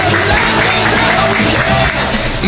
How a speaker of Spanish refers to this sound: ¡Un aplauso! ¡Bravo!